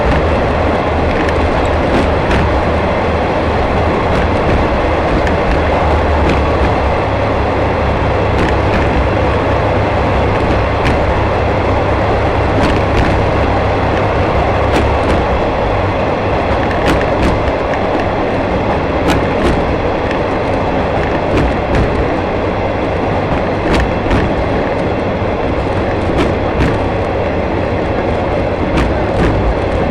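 The Shimanto Torokko 2 sightseeing trolley train on Japan's Yodo Line runs steadily along the rails from Ekawasaki to Tosa-Taisho, a loud continuous rumble and roar broken by sharp, irregular clicks and clacks from the wheels. No one speaks.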